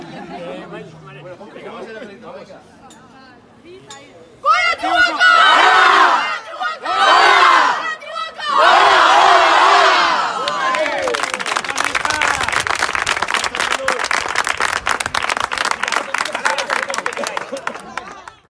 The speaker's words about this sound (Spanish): Pues ya lo escuchas, en el Antiguoco estamos de celebración después de la gesta lograda por nuestras chicas del Caete Honor y así lo celebraron nuestras campeonas de su categoría y lo hacen en su primera temporada en esta máxima categoría territorial